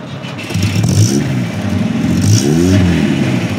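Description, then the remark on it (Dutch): The engine of a 60-year-old Volvo P1800 car turns over and catches, then idles and revs with an uneven, sputtering burble, fairly loud, with no voices. “60 jaar oud en dan draai je om en daar zit hij. Hij loopt en hij pruttelt een beetje.”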